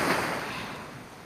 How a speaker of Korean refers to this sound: 이번에는 바닷가로 와봤어요. 들리세요? 이 파도 소리?